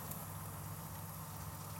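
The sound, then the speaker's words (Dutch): A fish bake bubbles and sizzles softly inside an oven after over half an hour of baking, golden-brown and crispy on top; a faint, steady crackling texture over a low fan hum, with no voices. “Het is een beetje aan het eh, bubbelen.”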